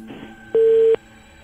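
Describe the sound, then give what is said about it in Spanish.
A failing phone line during a radio call-in: one loud, steady electronic beep lasting under half a second cuts through a faint buzzing hum, with no voice coming through the connection. “No, te falla el teléfono”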